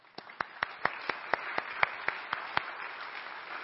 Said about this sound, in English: And if you uh, served, I want you to stand. We want to give you a quick round of applause for your service. Go ahead and stand up. Let's give them a hand.